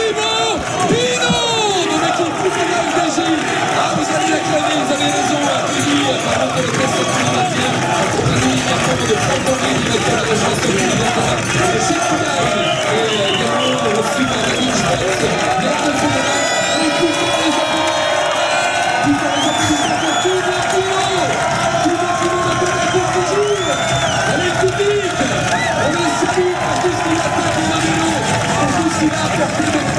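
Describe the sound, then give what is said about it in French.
A large crowd cheers and shouts continuously for Thibaut Pinot, the day's most combative rider, at a cycling race podium, a dense roar of many voices with whoops and chanting-like swells holding steady and loud throughout. “incroyable, image, incroyable ambiance. Ici, on se croirait dans un stade de foot.”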